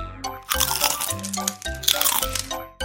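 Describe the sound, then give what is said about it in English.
Loud crunchy munching of a bug chewing a leaf, a steady stream of crinkly bites and cracks over a low sustained tone, with no talking. “Baby Bug was chewing a leaf.”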